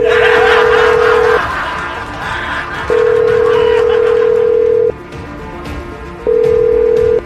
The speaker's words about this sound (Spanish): Desbloqueen la llamada de la línea número 9. Sale, vamos a marcar.